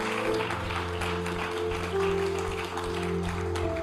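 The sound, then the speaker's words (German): Steady, dense clapping from an audience applauding those who spoke a prayer, which keeps going for several seconds at an even intensity, with sustained low musical tones humming underneath the whole time. “Ihr Lieben, komm, wir geben mal einen Applaus für all die im Raum und all die online, die dieses Gebet gesprochen haben.”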